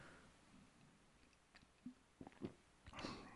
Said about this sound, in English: Let me take a sip of my coffee here.